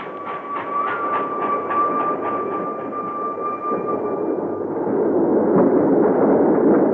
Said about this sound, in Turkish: Sürat postası. Duydun mu Ales? Sürat postası geçti.